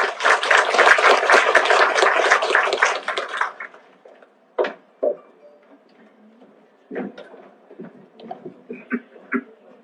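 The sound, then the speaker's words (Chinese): A burst of audience applause welcoming a speaker, dense rapid clapping that stays loud for about three and a half seconds and then cuts off, followed by a few scattered thumps and faint rustles. “大家掌声欢迎。”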